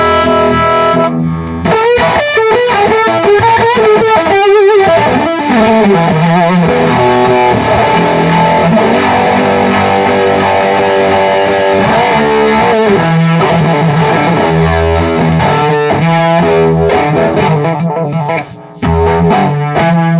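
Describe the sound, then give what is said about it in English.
A heavily distorted electric guitar played through an amp, loud and sustained, with shifting bent notes and gritty overdriven tone for about twenty seconds, briefly cutting out near the end. “And I know that if you were on stage and there wasn't all this stuff in the way and you're really massaging the amp, it'd be even crazier.”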